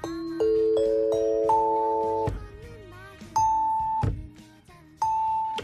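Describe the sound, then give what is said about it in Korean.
A bright ding-dong-dang chime rings out in rising stepped tones that sustain and blend, followed by a few single struck notes spaced apart, clear with no talking. “딩동댕은 어떻게 치는지요?”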